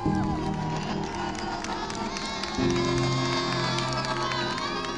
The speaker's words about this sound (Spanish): Como pueden escuchar, en las inmediaciones del Congreso se celebró con mucha alegría, y no es para menos